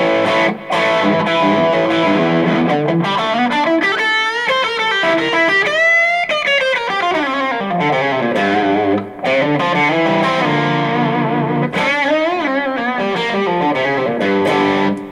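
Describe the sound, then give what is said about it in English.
An electric guitar through a pedal on its distortion setting and a TC Electronic Hall of Fame Mini reverb plays bending lead lines and chords for about fifteen seconds, thick and sustained with a reverb tail, loud, with no one talking. “But um, for the most part, I leave it on the dis- distortion setting, and it just it yeah, just yeah. sounds good.”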